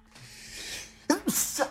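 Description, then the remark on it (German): A soft, drawn-in breath builds for about a second, then a sharp sneeze bursts out with a voiced, noisy spray that trails off quickly. “Gesundheit. Gesundheit. Uh, Dankeschön.”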